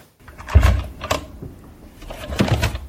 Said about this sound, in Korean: 어, 책을 놓으시는 소리 같죠? 음. 어, 페이지를 네, 이렇게 넘긴 것 같아요. 찢어진 거 있나 확인하시는 건가?